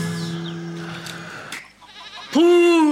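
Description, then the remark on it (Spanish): A sheep bleats in the distance in a long, wavering call, then after a short pause lets out a louder, quavering bleat that rings out clearly at the end. “una oveja bala a lo lejos”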